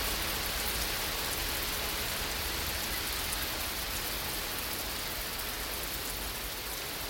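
rain

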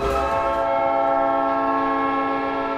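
hockey arena goal horn

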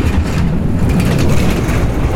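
rally car driving past

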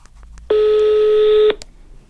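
telephone dialing tones

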